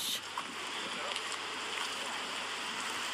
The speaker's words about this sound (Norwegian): Det der er elva. Det kan jeg avsløre. Det er akkurat Akerselva.